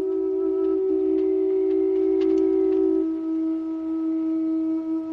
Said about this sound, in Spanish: Otro día, el valle amanece neblinoso. Un hombre sopla un cuerno cuyo sonido se extiende por las montañas.